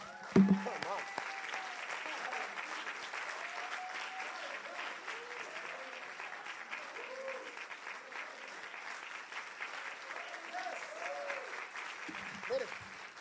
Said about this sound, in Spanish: ¿Cuántos dicen gloria a Jesús? Vamos a tomarnos un break para dar un aplauso a Dios, por favor.